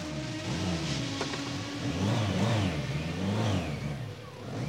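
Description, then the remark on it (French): A blender grinds pieces of pork for pork fritters steadily for several seconds, its motor whine loud and continuous, the pitch wavering up and down as the load shifts, with no voices. “Passez les morceaux de porc dans le mixeur.”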